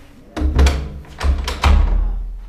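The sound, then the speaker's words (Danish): A door is pushed shut, a cluster of heavy wooden thumps and rattles over a couple of seconds, the last bang the loudest before it settles into quiet. “Kan du, kan du lukke døren?”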